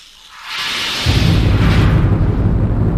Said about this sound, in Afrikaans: Die donderslag ruk aan die fondamente van die berg.